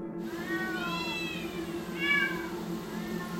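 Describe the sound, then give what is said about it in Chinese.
At least a hundred cats, kept in more than ten iron cages at an illegal cat-trading site on a hilltop after 1 a.m., meow loudly and insistently, their overlapping high, wavering cries coming in two swells, one long and drawn-out, then a shorter burst, over a steady low droning hum. “哇，它们的叫声是非常响亮的，非常响，我永远忘不了。”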